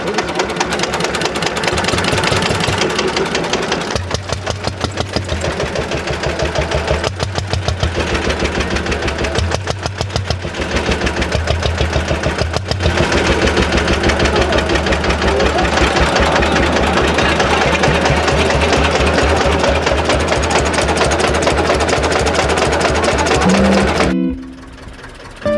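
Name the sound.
tractor engine running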